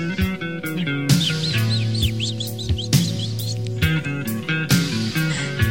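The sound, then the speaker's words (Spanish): A burst of quick, bright bird chirps repeats in a flurry, layered over a steady musical backing with a low sustained tone and occasional soft percussive hits. “Ponle pajaritos.”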